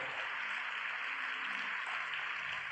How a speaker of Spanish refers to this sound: Dale un aplauso a ese Dios poderoso, hermoso.